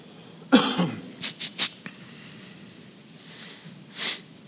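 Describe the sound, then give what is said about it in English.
A single loud cough bursts right at the microphone, followed by a few short breathy sniffs or throat sounds and a softer exhale, with no talking. “It's never good to cough into the microphone.”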